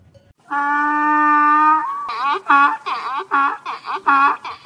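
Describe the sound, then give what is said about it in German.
A donkey, one of many in the countryside, brays loudly: one long drawn-out harmonic call, then a run of rhythmic, rasping hee-haw pulses that rise and fall in quick succession. “Und so viele Esel”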